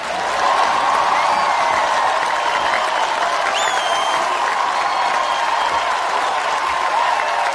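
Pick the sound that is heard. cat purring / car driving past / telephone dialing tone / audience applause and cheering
audience applause and cheering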